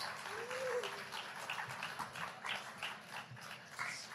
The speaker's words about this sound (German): Los, rechte Seite. Wow, da gibt es sogar Power. Applaus von rechts, Leute.